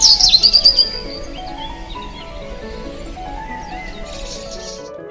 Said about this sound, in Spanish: ¿Has escuchado los pájaros?